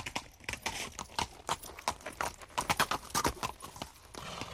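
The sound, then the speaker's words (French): Horse hooves clip-clop in a steady, rhythmic gait as a rider arrives, each sharp knock distinct, continuing throughout with no voices. “Le troisième jour, c'est un cavalier vêtu d'une veste en diamant qui arriva.”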